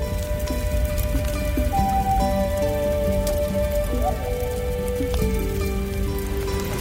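Steady, heavy rain falls from large clouds covering the sky, pattering and hissing continuously, with soft sustained musical tones drifting underneath and no voices.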